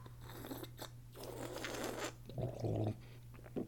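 Wet mouth noises as a person sips wine: a noisy slurp as the wine is drawn in, then a brief bubbly swishing and gurgle, with no one talking.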